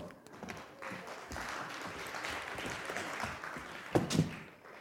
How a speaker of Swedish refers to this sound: Tack så mycket, tack så mycket. En applåd.